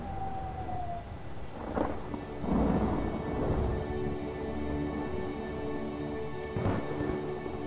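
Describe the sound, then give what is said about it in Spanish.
Steady rain falls throughout a thunderstorm, with deep rumbles of thunder rolling in several times, including a loud crack near the middle. No one speaks. “Protegerte de la fría lluvia. No asustarte por cada trueno.”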